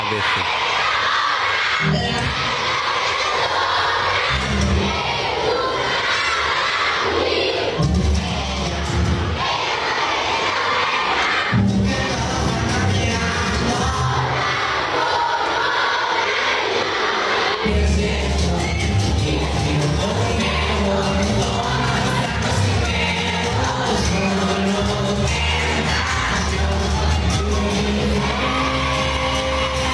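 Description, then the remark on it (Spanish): Regional Mexican music, corridos tumbados, plays loudly and steadily while a large crowd cheers and sings along to the lyrics, the voices of many people blending into a dense, continuous roar over the band throughout. “y que ahora suena hasta en Japón, Rusia y otros países con esta música regional mexicana, que eso sí, preocupa, hablan de drogas y sexualidad.”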